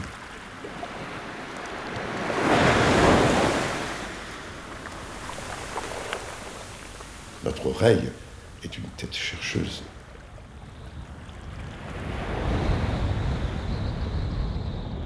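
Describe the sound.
Ocean waves swell and break on the shore in slow surges, one rising around the start and another near the end, with wind rushing over the microphone and a man speaking briefly between them.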